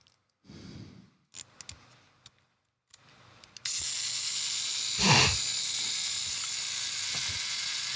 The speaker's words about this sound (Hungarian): szóval az elkatítás pillanatában mechanikák mozdulnak meg a fotóaparátban